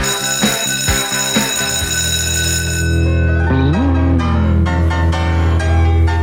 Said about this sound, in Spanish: Con este elegante piano, con estas potentes sonidos de batería, con esta música, como ella, alegre, ah, juguetona